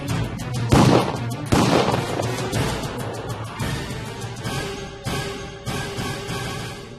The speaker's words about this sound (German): Die Kugeln treffen die rechte Hand, die Oberarme. Als er fliehen will, zwei Schüsse in den Rücken. Er fällt.